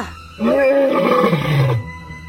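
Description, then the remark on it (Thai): A lion lets out one loud roar lasting over a second, a rough, growling bellow that sinks lower in pitch before cutting off, with no voices around it. “ด้วยความโกรธนั้นราชสีจึงคำรามและก็ได้พูดกับเจ้าหนูไปว่า”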